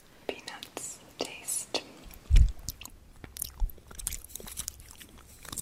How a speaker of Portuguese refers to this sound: Aqui o som da mastigação é registrado enquanto ela come uma série de doces coloridos.